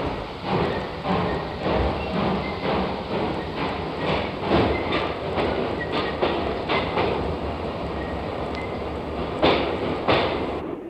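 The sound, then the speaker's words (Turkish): A train rolls steadily along the rails, heard from inside a single-berth sleeper compartment, its wheels clattering in a repeating clickety-clack over a constant loud rumble, with no one speaking. “Bu tek kişilik yataklı kompartman da hapishane gibi.”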